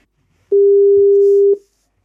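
telephone call ringing tone

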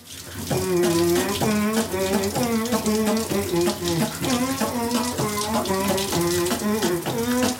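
shower water running

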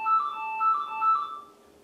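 doorbell ringing

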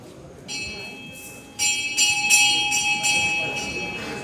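bell ringing

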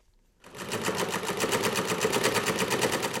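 sewing machine running

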